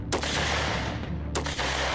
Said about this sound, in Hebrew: והנה, הופיע פרש ערבי, ולידו צעיר הולך רגל ובידו אקדח. הרגלי מסר את נשקול הרוכב, וזה ירה בי שש יריות. כולן החטיאו.